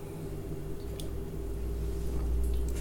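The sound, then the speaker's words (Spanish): Someone takes a quiet sip of water, with a soft wet slurp and swallow over a steady low background hum; no one speaks. “Denme un segundito, tomo un poquito de agua.”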